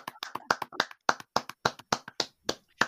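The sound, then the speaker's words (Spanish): A small group claps in brief applause for Perro Chef: a quick, uneven burst of sharp hand claps lasting a few seconds, with no one speaking. “saludar igualmente a Perro Chef y dar un aplauso a Perro Chef. Un aplauso.”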